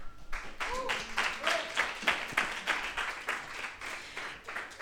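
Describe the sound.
An audience applauds steadily for several seconds at an EDA Presenta screening of the film Crónicas de un Exilio, dense overlapping claps at a moderate level, with a few voices calling out over the clapping.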